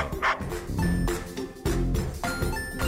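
A dog barks loudly several times in quick, uneven bursts, with a faint ringing tone lingering in the background and no one speaking.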